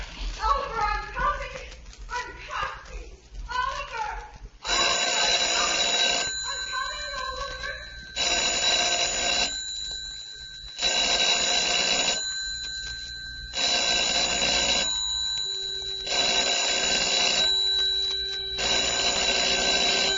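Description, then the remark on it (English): A brief stretch of voice gives way to an old telephone bell ringing loudly in an empty house, in about six long, evenly spaced bursts with short silences between them. “telephone ringing, ringing in an empty house.”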